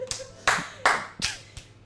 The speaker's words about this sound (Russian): Это ему аплодируют? Под аплодисменты, так сказать. Браво!